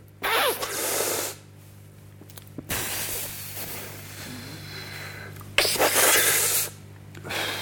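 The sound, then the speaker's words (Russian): Someone mimics a huge, nervous cigarette drag: a loud breathy hiss, a long softer drawn-in breath, then another strong airy exhale, all without words. “Вот нервно, как курят ли делают большую затяжку какую-то, неадекватно большую, и потом тонкой стройкой мы все-таки интуитивно чувствуем, что нам нужно для того, чтобы привести нервишки в порядок”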